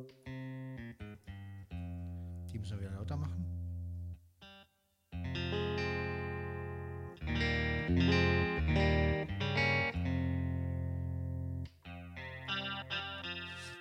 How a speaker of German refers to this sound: haben wir eine schöne Chorusgitarre, die ist allerdings sehr leise, also die müsste man dann schon ein bisschen aufdrehen, aber das ist so typisch. Finde ich einfach schön.